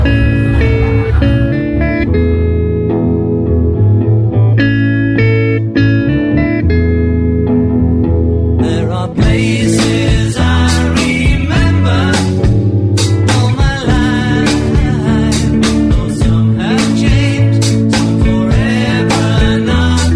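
A 1960s-style pop-rock song with a male lead vocal plays loud and close, opening on melodic instruments before drums and bright cymbals kick in halfway and drive a steady beat.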